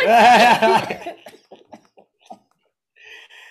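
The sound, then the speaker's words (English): A person coughs: a loud, raspy burst at first, trailing into several short, quieter coughs before fading out, with no talking. “And I actually have not coughed all day, so I don't know what's going on.”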